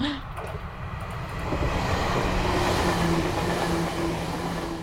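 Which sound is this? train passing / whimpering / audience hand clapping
train passing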